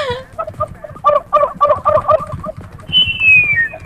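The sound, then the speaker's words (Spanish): A turkey gobbles in a fast, rattling burst of warbled notes for about two seconds, loud, followed by a thin, high whistle-like call that slides downward. “me puedes regalar un chumpe. ¡Ah! ¡El chumpe! Si le regalas el chumpe. un pavo”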